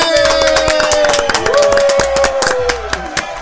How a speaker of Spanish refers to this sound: Mira, viejo. Un aplauso para Sweet Shop Chile.